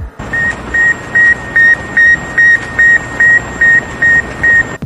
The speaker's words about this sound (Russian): В этот день, почти 60 лет назад, на орбиту советские ученые запустили первый искусственный спутник Земли – «Спутник-1». Его сигнал был первым звуком из космоса, который 4 октября звучал из каждого радиоприемника.